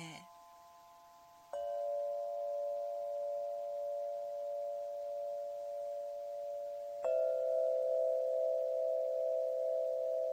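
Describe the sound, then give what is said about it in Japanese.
Clear, pure crystal tones from an instrument of eight pipes, each tens of centimeters long, mounted on a frame and able to play a do-re-mi scale, ring out and sustain smoothly, one long note beginning after a brief chime and a second, slightly louder note entering later, each holding steady with a glassy, singing quality. “パイプが割と何十センチもあるパイプが枠にこう8本取り付けられていてドレミファソラシドを奏でることができる楽器です。ですんごく澄んだよく伸びる音なので”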